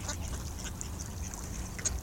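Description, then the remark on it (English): A duck quacks several times in quick, irregular bursts, fairly quiet, over a steady low outdoor rumble. No one speaks. “He thinks the lady duck is ignoring him because she likes the ducklings so much.”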